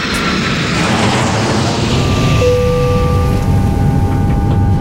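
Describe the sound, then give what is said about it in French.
A loud, steady airplane engine roar inside the cockpit of a Mayday Airlines plane, a dense rumbling hiss throughout, with a couple of thin, steady whining tones entering halfway through. No one speaks. “Mayday Airlines. Le cockpit.”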